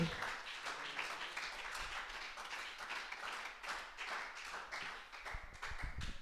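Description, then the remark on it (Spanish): An audience breaks into sustained applause in the name of the Lord, many hands clapping in a dense, steady wash of crisp claps that holds for several seconds at a fairly even level. “Alguien aplauda en nombre del Señor.”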